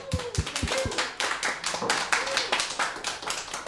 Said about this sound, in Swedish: En applåd.